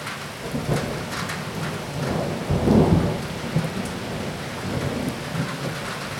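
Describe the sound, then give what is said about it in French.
Heavy rain pours steadily with a dense, hissing wash while a deep roll of thunder swells in the middle and fades, a continuous storm with no voices. “Enfin, par rapport à ta, à ta condition d'orage, de, de pluie torrentielle et de.”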